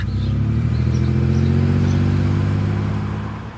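A truck engine rumbles steadily with a deep, throbbing low hum, then eases off and quiets slightly at the end as the truck pulls up and stops at a house on Jensen Avenue in Bremerton, Washington, at about 7 a.m. in foggy air.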